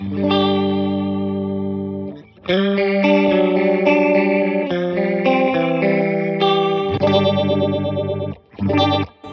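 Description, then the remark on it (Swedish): Loud, heavily modulated electric guitar through a Leslie-style rotating-speaker patch, the one a guitarist uses, with a swirling effect: a sustained low chord, a brief pause, then a busy run of notes and a final chord stab. “den där patchen på, på honingen, det är, ju, det är ju den som... Slå på den igen kan du få höra”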